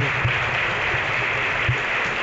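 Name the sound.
theatre audience applauding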